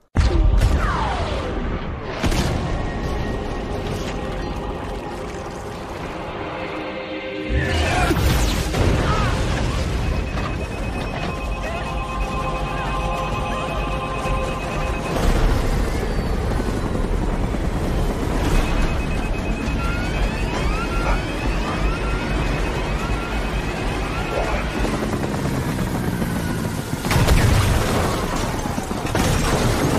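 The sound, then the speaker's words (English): A loud, chaotic helicopter crash with booming explosions, grinding metal and crashing impacts in a dense, continuous roar, punctuated by several heavy bursts. “Yep, the helicopter crashes.”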